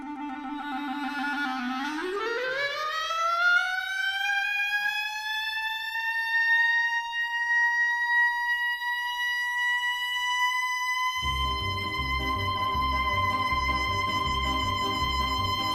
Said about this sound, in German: Musik von … an der Klarinette